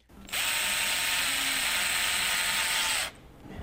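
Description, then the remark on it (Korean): A steady mechanical whir from two 3D printers, which build shapes by slowly stacking layer on layer, starts abruptly, runs evenly for about three seconds, then cuts off into quiet background noise. No one speaks. “여기 있는 두 개가 3D 프린터예요. 윙윙 걸리는 소리도 나고 그래서 그러니까 3차원으로 뭔가를 천천히 한 층씩 쌓아 올리는 식으로 형상을 만들어내는 그런 기기가 되죠.”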